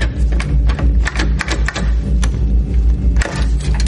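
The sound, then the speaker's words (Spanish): A nail file jabbing and scraping at a locked door's lock in an unsuccessful attempt to force it, producing irregular sharp clicks, taps and rattles in quick uneven bursts over a steady low rumble. “Con ella intenta forzar la cerradura sin conseguirlo.”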